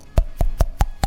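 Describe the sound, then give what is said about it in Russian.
Five sharp popping clicks from a finger flicking a cheek, evenly spaced about a fifth of a second apart, each with a hollow tonal ring that shifts slightly in pitch. “вот я сейчас пару раз щелкнулся по щеке, у меня уже щека заболела”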